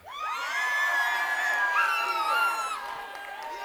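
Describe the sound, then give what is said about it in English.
An audience of first-timers at a weekend event in Laurelville erupts in loud cheering and high-pitched whoops, many voices overlapping in a sustained burst of excitement that holds steady for several seconds before easing slightly. “so where are all my laurelville first timers at let me hear you”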